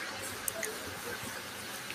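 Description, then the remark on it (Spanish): Water is poured into a glass with soft, gurgling splashes and small bubbling blips, quiet, followed by faint drinking sounds. No one speaks. “Tome agua.”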